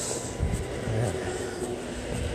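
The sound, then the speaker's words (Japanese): A train pulling into a crowded station, a steady low rumble and mechanical hum with faint, evenly spaced clicks above it, moderately loud against busy ambient noise. “私が乗ろうと思ってた電車が今来ましたが乗り直そうかなと思います。”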